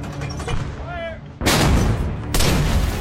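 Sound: artillery cannon fire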